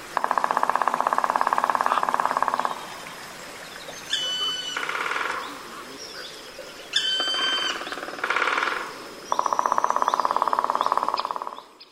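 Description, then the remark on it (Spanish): Rapid, steady drumming bursts of woodpeckers echo through the beech forest of Silvetti, two long rolls at start and end, with sharp high bird calls ringing out in between and faint forest ambience underneath; recorded by naturalist Carlos de Ita. “pero es que también podemos escuchar, por ejemplo, cómo suenan los pájaros carpinteros en el hayedo de Silvetti.”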